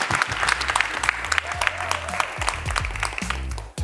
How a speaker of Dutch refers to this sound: Applaus.